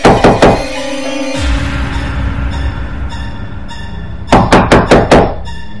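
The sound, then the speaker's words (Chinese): Loud, heavy banging on a dormitory room door: three quick thuds, a stretch of low rumbling hum, then a rapid burst of about five more forceful knocks. No one speaks. “因为从门上的小窗子乍一看去，门外竟然没有人，但是紧接着又是一个砰砰砰的声音。”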